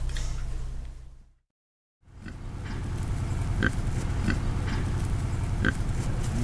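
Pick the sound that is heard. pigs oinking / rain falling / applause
pigs oinking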